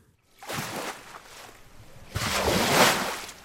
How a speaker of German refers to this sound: In einer riesigen Werkshalle nagen kräftige Wellen an der Düne Marlins Knoll. Nach und nach sackt der mächtige Sandkörper in sich zusammen.